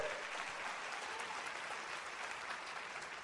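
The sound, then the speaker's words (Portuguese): A crowd claps steadily in applause to God, a dense, sustained wash of many hands applauding at an even level throughout with no voices standing out. “Você pode aplaudir o seu Deus por isso?”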